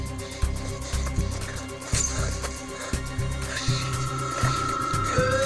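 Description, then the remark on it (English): Cars pass outside a hangar, a steady low rumble of traffic with a rising engine whine near the end, mixed with scattered clanks and knocks echoing inside the hangar. No one speaks. “There are cars.”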